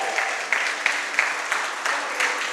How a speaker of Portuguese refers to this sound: Aí você dá a melhor salva de palmas para Jesus.